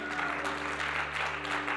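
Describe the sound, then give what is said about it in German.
Steady applause from a church audience after an appeal for volunteers for the church coffee team, a dense patter of many hands clapping at a moderate level throughout, with a faint low hum underneath and no voices. “Und ich danke euch für euren Applaus.”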